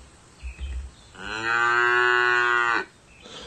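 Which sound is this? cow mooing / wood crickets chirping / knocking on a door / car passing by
cow mooing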